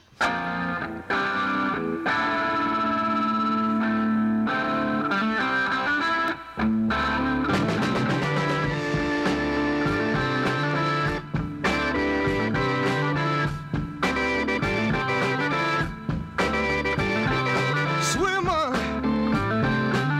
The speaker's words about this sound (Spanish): O sea, ese teclado y esa guitarra están eh, invocando al hedonismo más puro, ¿verdad? A mí me parece que es un verdadero temazo.